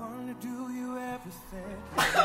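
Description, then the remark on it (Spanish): A single sharp, loud sneeze bursts out near the end, after a stretch of steady humming, tonal background sound. “Salud.”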